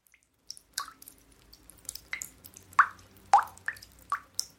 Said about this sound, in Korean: 물 떨어지는 소리.